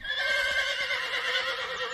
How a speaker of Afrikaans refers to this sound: Maar die aand, toe hy al slaap, hoor hy witperd sag ronnik langs hom.